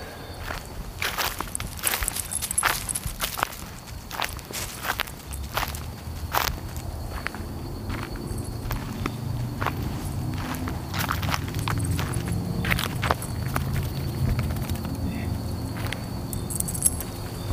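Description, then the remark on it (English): Steady footsteps crunch along outdoors at an unhurried walking pace at around 7 or 8 o'clock at night, clear over a low rumbling background with a faint constant tone, no one speaking. “And uh, so I decided to go for a walk”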